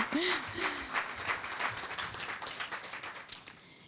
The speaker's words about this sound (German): Danke dir. Du kriegst nochmal einen Applaus.